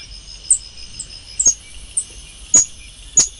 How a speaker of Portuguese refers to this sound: Porque nosso curador da fauna brasileira, Nelson Volter, arranjou aqui o som do Mico Leão Dourado, que é o assunto aqui que a gente traz para o Jornal Dourado, para a coluna do Estadão.